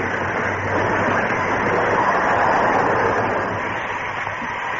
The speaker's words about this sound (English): Then the Lone Ranger backed the train to the town of Flint Hill.